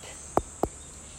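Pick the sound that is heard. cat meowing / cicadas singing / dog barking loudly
cicadas singing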